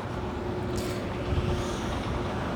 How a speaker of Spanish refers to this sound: El tractor con otro que va atrás, que hace un golpeteo que nunca me pasa.